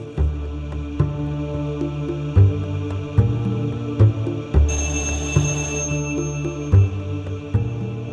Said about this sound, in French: La sonnette de mon appartement vibre comme un bourdon. Mon père est arrivé plus tôt que prévu et ne décolle pas son doigt de l'interrupteur.